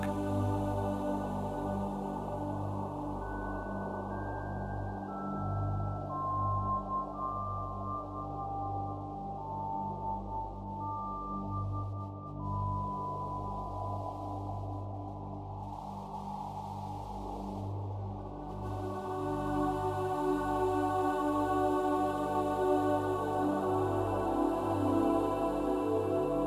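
Calm meditation music with layered, sustained drone-like tones and soft held notes, steady and unhurried at an even moderate volume, with no voices throughout.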